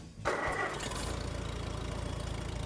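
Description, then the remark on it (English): A 1950 Farmall C demonstrator tractor in Illinois, the 42nd one built, starts up abruptly after a brief quiet moment, then settles into a loud, steady idle with a rhythmic low chugging pulse. No voices are heard. “This is a 1950 Farmall C demonstrator.”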